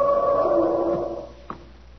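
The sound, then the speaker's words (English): An elephant trumpets once, a loud, brassy, sustained blare lasting over a second before fading away, with a brief soft knock just after; no one speaks. “That is an elephant trumpeting.”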